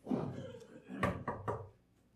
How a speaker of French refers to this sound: Joe est assis, Pierre cogne à sa porte.